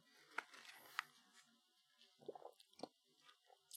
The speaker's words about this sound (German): Ich muss kurz mein Eis schlucken, es tut mir leid. Der, der Mann beißt ins Eis, da müssen wir auf jeden Fall, sag doch mal was dazu. Leute, die ins Wassereis beißen, sind für mich ganz schön suspekt.